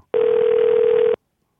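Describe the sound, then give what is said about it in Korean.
A telephone dialing tone as a call is placed to a show listener: one steady, mid-pitched electronic beep lasting about a second, fairly loud and even, with a slightly buzzy phone-line quality and no talking. “0528님 전화 한번 걸어보겠습니다”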